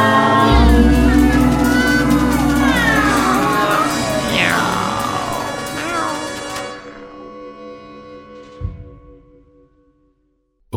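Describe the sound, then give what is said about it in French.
Several voices imitate cats, letting out drawn-out, sliding meows that rise and fall over a dense, sustained background, fading out toward the end with a brief thump. “Tout le monde, tout le monde, tout le monde se faire miaou.”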